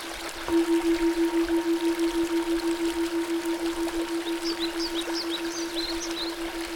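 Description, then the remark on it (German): A small river gurgles and flows steadily in the background beneath a sustained, gently pulsing tone, with small birds chirping faintly toward the end. “hier und da ein Gurgeln.”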